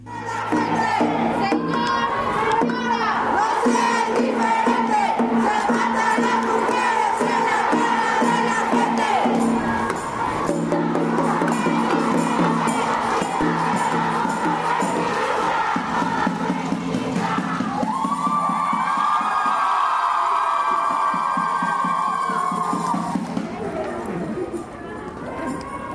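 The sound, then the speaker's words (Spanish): A loud protest crowd at an 8 March march, gathered in the afternoon outside the building of the Puebla State Human Rights Commission in Puebla, shouts and chants slogans continuously, many voices overlapping in a dense, sustained roar, with a higher-pitched sustained chant rising near the end. “Mientras se terminaban de formar los contingentes, las consignas y los gritos llenaban todo.”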